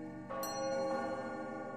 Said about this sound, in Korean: 4월 맑고 쌀쌀한 날이었다. 시계들의 종이 13번 울리고 있었다.